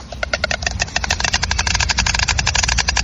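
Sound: white stork bill clattering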